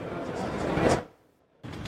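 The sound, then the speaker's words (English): Fairly loud rustling and fumbling as headphones are pulled out, handled and plugged in, lasting about a second, then a short silence before the handling noise starts again. “Let me pull those out. Plug those in.”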